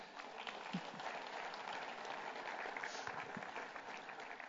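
A church audience applauding steadily as a man comes up to the front, a dense wash of clapping that holds at an even level throughout, with a faint voice or two briefly audible beneath it.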